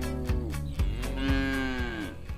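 A cow moos loudly, one drawn-out lowing call that rises and wavers in pitch for a couple of seconds, with no one talking.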